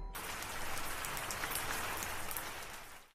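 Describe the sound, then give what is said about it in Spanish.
Steady rain drips onto a roof at the back of a building, a dense, continuous hiss of drops with small irregular ticks throughout, even in loudness, with no voices. “la parte de atrás estaba lloviendo y hay un techo al que le estaba cayendo pues las gotas, ¿no?”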